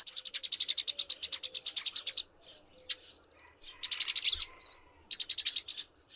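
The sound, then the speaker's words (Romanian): Eurasian tree sparrows chirping in rapid, repeated bursts of bright, high notes, with short pauses between volleys, clear over a quiet background. “Vrăbile de câmp sunt sociabile și gălăgioase. Ciripesc în zbor, dar și când își caută hrana adunate în stoluri mici.”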